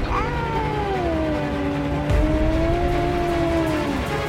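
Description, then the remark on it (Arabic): A black cat in a cave-like tomb full of black cats lets out one long, drawn-out caterwaul that wavers and slowly sinks in pitch, an eerie, moaning yowl sustained for several seconds over a steady low background hum. “حلمت اني كنت في مكان عامل زي كهف او مقبره والمقبره دي كانت كلها قطط سودا صوتهم مزعج ومرعب”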